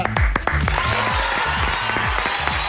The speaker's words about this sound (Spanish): Me siento honrado porque yo siempre los aplaudí en la cancha y ahora me aplauden a mí. Gracias.